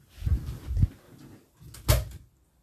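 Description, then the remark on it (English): A door being opened to let a cat in: two dull thumps, then a sharp latch click with a brief rattle, with no one talking. “Wait, my cat's in the door.”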